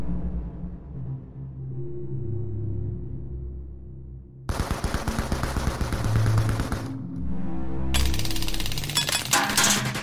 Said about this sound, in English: Then he remembers the storm of bullets, the shattering of glass, sharp pain blossoming on a hundred spots on his flesh, the taste of blood in his mouth. He remembers one hail of thunderous gunfire being